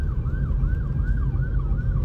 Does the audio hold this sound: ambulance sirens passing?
yes